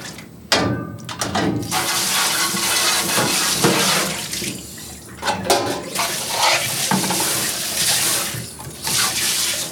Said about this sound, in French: Je vais ramasser mon abreuvoir, mes petits plats d'hier. Je vais pouvoir aller laver ma vaisselle.